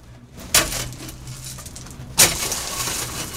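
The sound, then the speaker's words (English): A pickaxe dragged across rocks: two sharp, bright scrapes about a second and a half apart, each trailing off into a gritty, rasping drag over a low steady background. “like some people just freak out on just being a quiet guy, just dragging maybe that pickaxe across yeah, yeah, the rocks. Let's hit, let's make this sound for them.”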